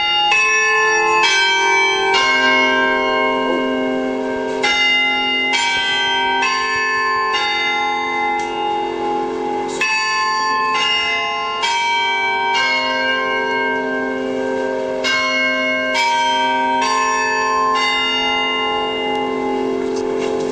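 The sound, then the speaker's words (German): The Glockenspiel carillon bells of the Roter Turm on the market square play a slow melody, each struck note ringing and overlapping the next in a steady, resonant wash, heard from a distance at Radio Korax, Unterberg 11, with no voices. “Das Glockenspiel über zwei Radiofrequenzen”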